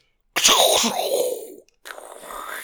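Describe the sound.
A voice imitates a whipped cream can spraying: a loud, hissing, sputtering burst lasting over a second, then a brief pause and a softer, airy hiss trailing off.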